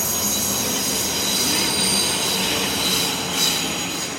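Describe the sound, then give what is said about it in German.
A train rolls along a station track at Berlin Hauptbahnhof, platform 14, at 20:45, with a steady, loud rumble and high-pitched squealing wheels, a brighter squeal swelling near the end, with no voices. “Berliner Hauptbahnhof. Es ist 20.45 Uhr. Mit der Rolltreppe fahren wir zu Gleis 14.”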